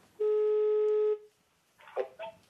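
telephone call being dialed

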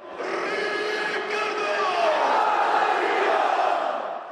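football fans cheering

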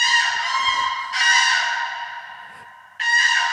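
crane calling

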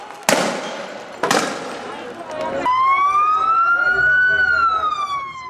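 ambulance siren

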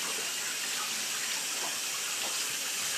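water running

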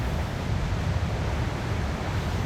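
wind blowing outdoors

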